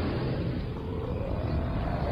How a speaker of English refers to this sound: The witch's half broomstick flew into a cloud, and the witch heard a roar that was scary and loud.